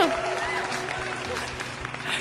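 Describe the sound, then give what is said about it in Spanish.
Scattered clapping, like a small group applauding, fills the moment with dense crackling bursts while voices chatter over it throughout. “Aplausos, por favor.”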